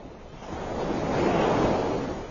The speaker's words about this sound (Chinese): 海浪涌上岸边的滩涂，又徐徐退去。仿佛大海母亲的抚摸，这里的确也是渤海各种鱼类产卵的温床。